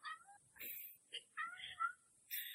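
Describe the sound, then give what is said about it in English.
A cat meows repeatedly, a quick series of about five short, insistent calls, some rising and falling in pitch, with brief pauses between them; the male cat seems hungry. “I was going to say he had some comments as well.”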